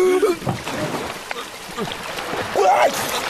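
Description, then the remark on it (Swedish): Churning water splashes and gurgles throughout, with bubbly sloshing, as someone dives underwater to reach a submerged hatch. A short strained vocal gasp comes at the start and another rising breathy cry near the end. “Vi måste dyka, luckan är ju under vattnet.”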